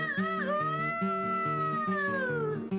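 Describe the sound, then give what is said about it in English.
A long, drawn-out meow, sung as part of a farm animal song, sliding downward at the end over a steady, rhythmic musical accompaniment with a bouncing bass line. “and the duck went quack, quack, the dog went ruff, ruff, the cat went meow, and the bird went.”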